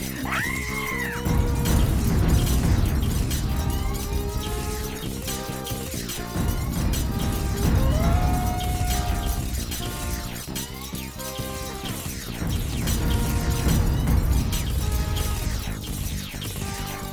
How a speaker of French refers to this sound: Les différents tirs du robot pulvérisent tout. Bureaux, chaises, tableaux, des feuilles et débris en tout genre volent dans la pièce.